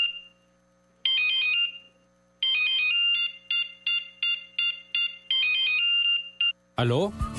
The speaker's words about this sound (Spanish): Si pensaste que sonaba tu celular, es momento de cambiarte a un smartphone.